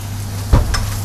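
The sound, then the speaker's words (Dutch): Shrimp frying in a pan with a steady low sizzle, broken by a sudden sharp spattering burst and a second fainter crackle just after. No one speaks. “Oeh, freaking hell, het spettert.”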